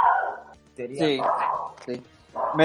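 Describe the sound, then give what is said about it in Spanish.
A dog named Isco, after the footballer, barks a handful of loud, yappy bursts in an irregular run, with brief gaps between them. “un saludo a, Isco, el perro”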